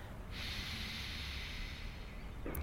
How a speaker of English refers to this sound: just see if you can bring your attention back to your breath, breathing in and breathing out. Can you hear as you breathe in?